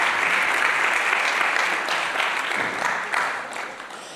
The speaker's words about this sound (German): wir danken dir noch für diesen großen Applaus.